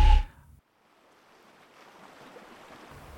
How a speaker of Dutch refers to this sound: Daar dobbert ons bootje. We zijn onderweg naar Sicilië en we varen nu over woelig water, want onder ons botsen de Europese aardplaat en de Afrikaanse aardplaat tegen elkaar en probeert het magma naar boven te komen.